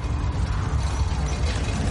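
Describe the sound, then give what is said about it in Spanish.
A huge gate closing the north face of the tunnel through the Wall slowly rises, its mechanism grinding steadily: a dense, continuous rumble of clanking gears and ratcheting metal with heavy low-end weight and no pauses. “La enorme puerta que cierra la cara norte del túnel del muro se levanta poco a poco.”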